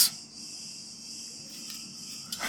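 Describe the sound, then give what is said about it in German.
Cicadas keep up a steady, high-pitched buzzing chorus that continues unbroken, with no one speaking, heard at a moderate level against a quiet outdoor background. “Das sind übrigens am Fabio seine Lieblingsviecher. Zikaden.”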